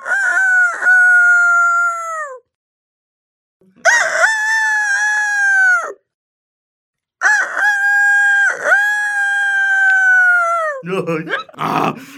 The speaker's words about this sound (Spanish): Luego Pasaron por una granja en la que un gallo quiquiricaba con todas sus fuerzas.